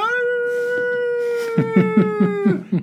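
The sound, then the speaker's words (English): A person imitates a dog's howl: one long, steady, mid-pitched note held for about two and a half seconds, with a series of short, rhythmic bursts breaking in near the end. “and was it howling like a dog, man?”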